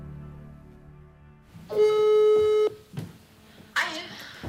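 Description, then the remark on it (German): A single steady ringing tone of an unanswered phone call sounds for about a second, clear and fairly loud over a quiet line, followed by a short rustling burst. “jetzt ist es 13.47 Uhr und der geht nicht an meine Anrufe ran, ne?”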